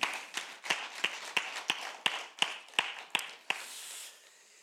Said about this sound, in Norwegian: Kan gi deg en klapp, altså. Det er fullt lovlig.